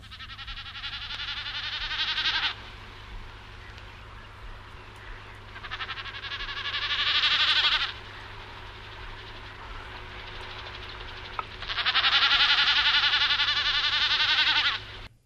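Common snipe drumming: three loud, wavering, bleating bursts of about two to three seconds each, separated by pauses, with a faint steady low hum running underneath throughout.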